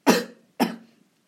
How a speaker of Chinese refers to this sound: 哦，天啊，咳嗽